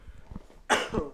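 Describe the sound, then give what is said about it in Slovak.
Two harsh, raspy coughs burst out after a short quiet stretch, the second following right on the first like the start of a coughing fit. “Na zdravie. Ja sa to zadusím.”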